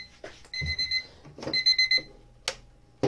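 An alarm clock rings in two bursts of bright, steady electronic beeping, clear, separated by short gaps with a few soft knocks and clicks around them.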